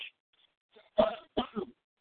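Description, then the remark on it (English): Two harsh coughs in quick succession, the second splitting into a short double burst, with a faint throaty rasp just before and silence around them. “of tobacco or or the uh, tubes that will make us cough.”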